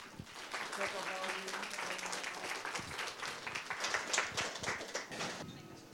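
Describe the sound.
An audience in a library claps steadily for several seconds to welcome a debate panel, dense overlapping applause that stays fairly even in loudness, with a few voices faintly audible underneath.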